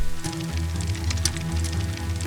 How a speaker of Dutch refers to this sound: Het regent. Het regent heel hard.